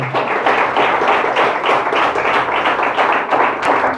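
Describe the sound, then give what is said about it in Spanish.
An audience at a church service claps together, an offering of applause to the Lord, in sustained, dense applause, many hands striking at once in a steady, bright wash of sound that stays loud throughout with no voices rising above it. “Regalémosle una ofrenda de palmas al Señor y le damos gracias esta noche.”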